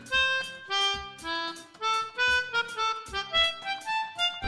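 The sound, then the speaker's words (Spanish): A melodica, a wind instrument similar to a harmonica, plays a bright, reedy tune of a song with sustained notes stepping through a melody, backed by a steady beat of soft drum hits. It is clear, with no voices. “y la melódica suena así.”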